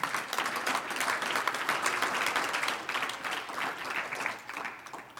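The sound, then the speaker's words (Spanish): A church audience bursts into sustained applause for the Lord during a sermon, a dense, steady wash of many hands clapping for several seconds at an even level, with no voices standing out. “Un aplauso al Señor.”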